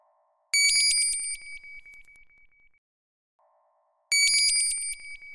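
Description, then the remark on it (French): A morning alarm clock rings: a loud, bright mechanical ringing in rapid metallic strikes, sounding for about two seconds, pausing, then starting again; faint quieter tones sit between the bursts. No one speaks. “Le réveil sonne et Zaïd, comme chaque matin, prend un peu de temps pour l'éteindre.”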